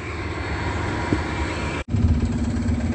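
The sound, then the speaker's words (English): A bus engine drones loudly and steadily at 12:28 p.m., a broad rumbling roar with a low hum, cut by a brief moment of silence partway through before the noise resumes. “Alrighty, what you hear in the video, again, that is the demon driving one two three four five two zero, using the bus as a means of audible activity.”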